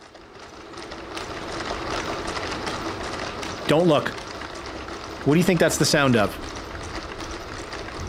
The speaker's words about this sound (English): That's the sound of Boston Dynamics' latest quote unquote research project, which is a troop of robotic dogs yeah. pulling a tractor trailer.